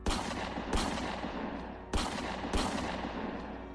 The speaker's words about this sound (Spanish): Se acercó un poco más con todo el miedo que tenía y esta vez apuntó mejor el arma. Soltando los cuatro tiros restantes, estos hicieron blanco en un tronco del árbol que estaba detrás del ave.